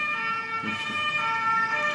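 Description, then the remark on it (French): A fire engine siren wails steadily and fairly loudly for the whole moment, its bright tonal blare holding constant with faint road rumble underneath and no voices. “J'attends que ça passe. Hein. Ouais, j'attends que les pompiers Allez sauver des vies”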